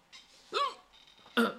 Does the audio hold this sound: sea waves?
no